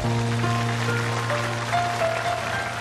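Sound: audience applause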